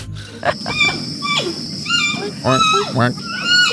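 A giant panda vocalizes in a series of high, squeaky, bleating calls that rise and fall in pitch, several in quick succession over a low, steady background rumble.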